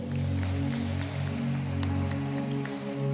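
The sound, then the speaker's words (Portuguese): A crowd at an evening worship service claps steadily in applause for Jesus, the dense patter of many hands, with sustained low musical tones humming underneath throughout. “Você pode aplaudir Jesus nessa noite?”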